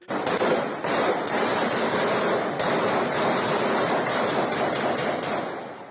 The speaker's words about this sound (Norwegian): Dette er lyden av Aleppo, Syrias største by. En by med rik kulturhistorie, men nå krig og død.